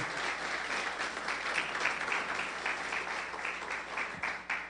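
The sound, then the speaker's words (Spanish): A church audience applauds steadily in praise of the Lord Jesus, a dense wash of many hands clapping at an even loudness for several seconds, with no one speaking over it. “Dale un fuerte aplauso al Señor Jesús.”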